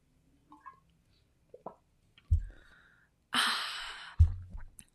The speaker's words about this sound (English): This is what happens when I talk too fast and I run out of breath because I'm podcasting alone and forget to drink water. So I'm going to do that really quick.